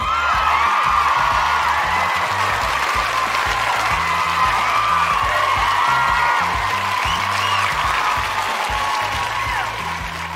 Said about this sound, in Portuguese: Oh, aí agora entra bem. aquele efeito sonoro da torcida do Vasco, assim.